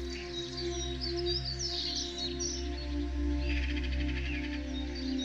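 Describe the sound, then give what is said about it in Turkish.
Birds chirp and twitter high above a soft, steady drone, with a pulsing cricket-like trill joining midway; the calls are faint and continuous, with no voices. “Kuşların ve cırcır böceklerinin seslerini duyuyorsun.”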